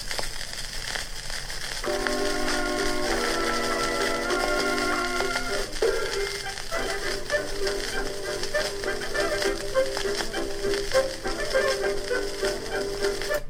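A scratchy old 1920s dance orchestra record plays through steady crackle and hiss, with horns holding stacked chords before settling into a bouncier rhythmic passage. No one speaks.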